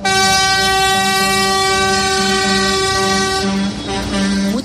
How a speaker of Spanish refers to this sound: ruido y un gran colapso el que se ha vivido en Valladolid, también en León y Ávila en las últimas horas, donde los tractores han accedido al casco urbano.